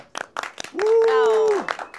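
Scattered audience applause on a program welcoming a guest, a few sharp irregular claps, with a loud sustained vocal whoop or cheer held for about a second in the middle before the clapping resumes.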